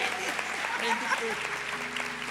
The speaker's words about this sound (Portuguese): Vamos dar uma salva de palmas, gente, por favor.